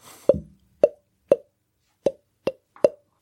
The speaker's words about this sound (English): What's happened to your face? Like your jaw's unhinged and you're blowing bubbles at me.